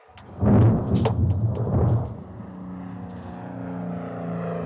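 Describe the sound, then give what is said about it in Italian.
A loud, rumbling crash of thunder rolls for a couple of seconds, then gives way to the steady, droning hum of an ATR-42 turboprop airliner's engines passing through the storm. “Un ATR-42 attraversa il temporale.”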